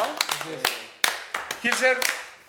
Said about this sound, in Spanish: Pues muy bien. Aplausos. Aplausos. Merecidísimo, uno.